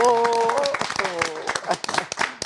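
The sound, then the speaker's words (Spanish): A brief burst of clapping from a small group giving standing applause for an arriving guest, actor Joaquín Cosío, quick irregular claps mixed under loud, excited voices talking over one another. “Sí, aplausos de pie para el gran”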